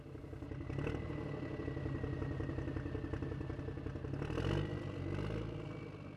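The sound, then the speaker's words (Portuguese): A tuk-tuk's small motor engine runs steadily throughout as it carries passengers up to the Miradouro da Senhora do Monte viewpoint in Lisbon, with a low rattling drone and a couple of brief surges in revs. No one speaks. “O tuk-tuk trouxe-nos ao topo do miradouro mais alto de Lisboa e, na minha opinião, o que tem a melhor vista da cidade: o Miradouro da Senhora do Monte.”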